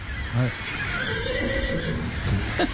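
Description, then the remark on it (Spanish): A horse whinnies in a shaky, quavering call that rises and falls for a couple of seconds over a steady background hiss. “Un caballo.”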